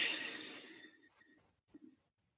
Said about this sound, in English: So you'll start this by breathing more deeply than you're used to, but still natural breath. So, big inhale and exhale.